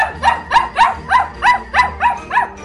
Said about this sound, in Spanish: La perrita ladra como loca.